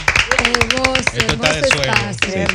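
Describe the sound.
A crowd claps on Three Kings' Day to celebrate a new booth, a quick, irregular patter of sharp hand strikes, with several voices calling out over the applause throughout.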